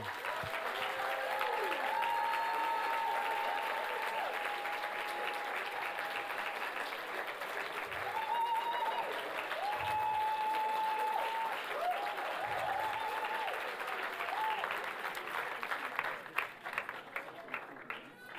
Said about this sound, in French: Tous les papas, levez-vous. Voilà, et là, il va falloir vraiment les applaudir comme il faut.